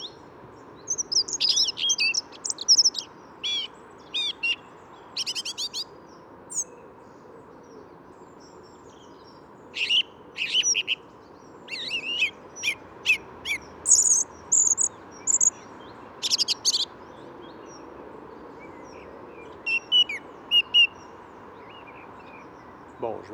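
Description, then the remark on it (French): Two songbirds sing together, trading bright, chirping phrases in irregular bursts over a constant low rumble of traffic noise from a noisy spot with a red light less than 100 meters away. “Voilà, les deux oiseaux chantent ensemble. On entend bien la différence de texture.”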